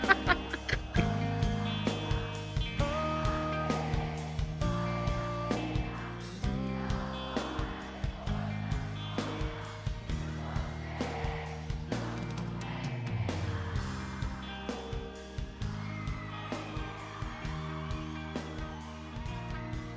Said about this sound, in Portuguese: Pera Peraí, tá passando um carro aqui de ovo aqui.